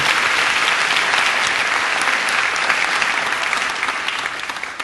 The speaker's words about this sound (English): So let's put our hands together and welcome all those who are watching and listening today.